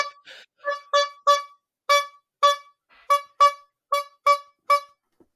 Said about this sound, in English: like those, like ho- honking horns are my f- fucking favorite thing